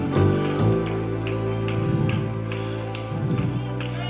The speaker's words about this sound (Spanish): Gracias muchachos, gracias. Dale un aplauso fuerte a Cristo Jesús.